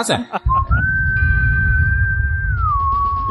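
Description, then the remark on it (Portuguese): A failed attempt at whistling: a single wavering whistled note, held for a few seconds and dipping at the end, rides over heavy, breathy air noise, like someone blowing hard right into a microphone. “Ficou, ficou o caos aqui, parece que tu tá soprando no, no, pé do ouvido da gente.”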